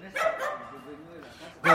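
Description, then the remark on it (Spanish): A dog barks, a couple of sharp yelps at the start and another loud burst at the very end, with a quieter murmur of sound in between. “Eh, hola perrito.”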